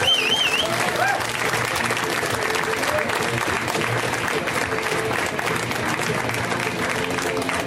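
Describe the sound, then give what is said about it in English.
Sustained applause from a large audience fills the room, steady and loud throughout with a few whoops and cheers mixed in at the start, welcoming comedian Sean Patton onto a stage. “Let's hear it right now for Mr.”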